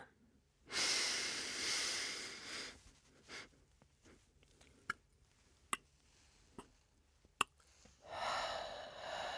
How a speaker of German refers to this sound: Ausatmen, so lange du kannst.